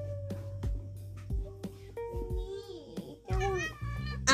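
A kitten that has just woken up gives a few high, wavering meows, the last ones louder, with soft thumps and a low background hum in between.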